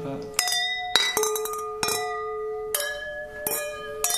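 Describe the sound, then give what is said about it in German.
Several drinking glasses clink together in a toast, producing a series of bright, ringing chimes at irregular intervals, each tone lingering and overlapping the next, fairly loud. “Wie viele Gläser hier?”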